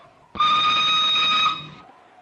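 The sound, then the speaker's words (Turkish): A single sustained train whistle blasts abruptly before departure, holding a steady, bright multi-tone pitch for over a second before fading out, loud with no voices. “Bütün yolcular trene.”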